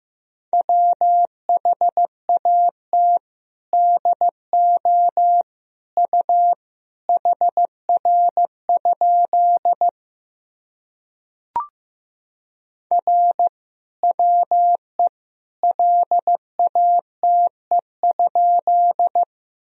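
Morse code beeps at about 15 words per minute sending practice sentences built from the top 300 words and abbreviations: a steady mid-pitched tone keyed into short and long pulses in clear groups, with a pause and a single click midway. No voices.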